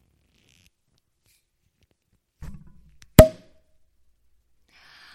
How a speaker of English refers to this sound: All right. Had to have that anticipation. Anticipation cork pop and the pour. Just wanted y'all to be a part of it